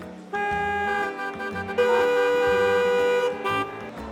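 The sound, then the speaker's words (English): Car horns honk in busy city traffic in Mumbai, India: several loud, sustained blasts overlap and shift in pitch over a low rumble of vehicles, with no talking. “Hey, check out all those honking sounds.”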